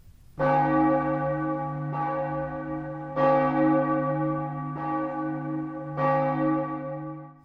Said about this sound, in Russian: Колокол издал совсем не такой звук, как обычно. Это услышала Анна, которая как раз была рядом. Она быстро подбежала к колоколу и отзвонила последние пять ударов.